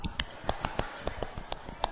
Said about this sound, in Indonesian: Tepuk pramuka